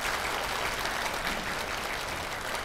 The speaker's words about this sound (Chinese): 那么啊，尤其我们乐众法师很辛苦哈啊，他们都没有休息啊啊，这个一气呵成啊，呃，带领我们啊，那我们再一次的掌声感谢他们。